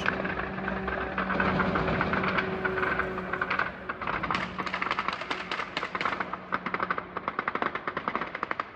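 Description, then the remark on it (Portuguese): A steady, droning engine buzz of an attack drone, heard but not seen, hums overhead, then gives way to dense, rapid bursts of cracking gunfire from air defense teams firing machine-gun-like weapons, continuing to the end. “Os drones ouvem-se, mas não se veem.”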